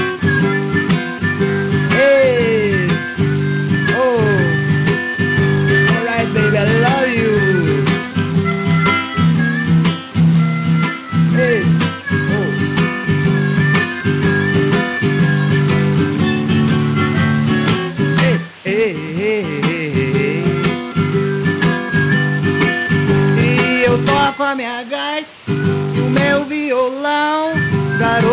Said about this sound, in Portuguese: A gaita.